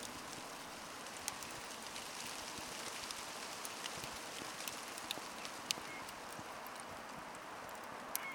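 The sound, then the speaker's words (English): Steady rain patters continuously, a dense hiss broken by scattered sharp drips and taps. No voices, just an even, soft wash of falling water throughout. “At, at first, I guess I could see how that sounded a bit like some autumn leaves or a bit of a fire, but it sounded more to me like rain.”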